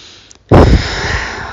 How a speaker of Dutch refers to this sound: Adem je helemaal door, door je neus door je, of door je mond. En je geeft je lichaam een signaal van: oké, kalmeer maar even meer maar even. Hè? Dat, dat, dat kalmeert je zenuwstelsel.